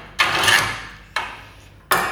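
A sediment drill core being placed into a saw rig and clamped so it will not slip later: three sharp knocks at uneven intervals, each trailing off in a fading mechanical rasp, with no voices.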